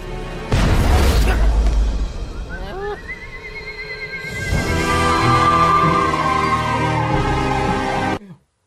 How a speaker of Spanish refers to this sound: Cuando ahorita está como jugando a fútbol y la bola, entonces de momento tira unos cohetes y se va volando.